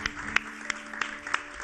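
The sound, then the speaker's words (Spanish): A short burst of applause in León: about six sharp, evenly spaced claps at a slow, steady rhythm over a faint continuous hum, with no voices. “Con este aplauso puedes volar hasta Punta Norte y mañana te saludamos desde allí.”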